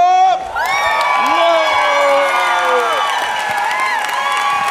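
audience applause and cheering

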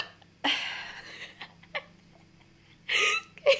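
burp

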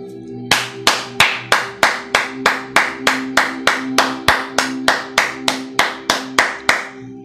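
hand clapping

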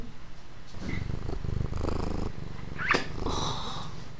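cat purring

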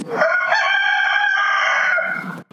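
rooster crowing

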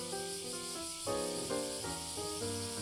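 cicadas buzzing

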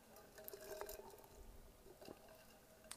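pouring or drinking water

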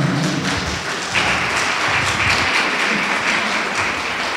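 audience applause

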